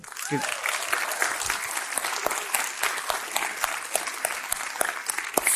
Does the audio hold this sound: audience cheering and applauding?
yes